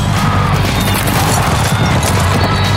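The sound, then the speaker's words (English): Racehorses burst from the starting gate and gallop hard, a loud, dense thunder of many hooves pounding together in a continuous rumbling roar for a few seconds. “horses are at the gate.”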